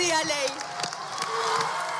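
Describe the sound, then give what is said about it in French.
Deputies in Argentina's parliamentary chamber clap and cheer steadily after a speech for legal abortion, a dense wash of applause with scattered shouts and voices rising throughout in the big reverberant chamber. “Sous les applaudissements de l'hémicycle, certaines députées des autres partis pleurent, d'autres s'enlacent, et l'Assemblée chante, reprenant les slogans des manifestantes qui attendent dehors dans le froid.”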